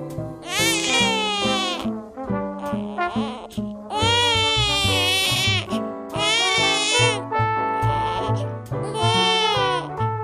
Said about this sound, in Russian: мы теперь можем пользоваться своими собственными записями звуков, издаваемых новорожденным.